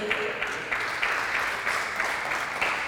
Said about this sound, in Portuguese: Dá para dar um amém aí, dar um aplauso a Jesus?